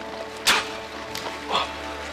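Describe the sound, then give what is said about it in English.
Dogs bark in two or three short, sharp bursts spaced about a second apart, moderately loud, over a steady low background hum. “You filthy dogs! I said quiet.”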